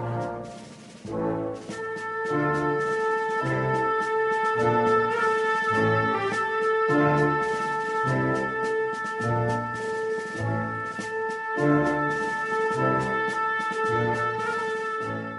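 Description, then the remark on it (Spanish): A brass band plays a slow Semana Santa (Holy Week) cofrade processional march from a classic recording, with sustained brass chords over a steady, heavy drum beat. It stays loud and full throughout, and no one speaks. “una composición que me gusta a mí iniciar la recofrade y que nunca, nunca la he destacado, ¿no?”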